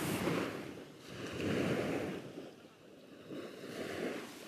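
Distant waves of the Cretan Sea in Greece wash in slow, rolling swells, rising and falling in a steady rhythm with a soft hiss of surf and light wind noise, no voices present.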